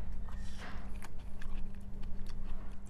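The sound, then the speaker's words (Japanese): Bites and chewing on freshly made, hot pan-fried gyoza with crisp winged skin and juicy filling, eaten plain without sauce, a series of crisp, wet crunches at an uneven rhythm over a steady low background hum, with no talking. “ジューシーでおいしいすごいね肉汁がたっぷりもうねかじったその中ちょっと見ただけでもうね逆さにできないぐらい肉汁たっぷりなのしかも野菜多めであっさりしてる”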